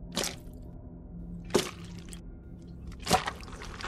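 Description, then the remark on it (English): Three slow, evenly spaced liquid swishes, an oar pushed through thick, murky black water while rowing, each a soft wet surge over a low murmuring background, fairly quiet. “as Sunny puts the oar in there and just pushes, it's just like”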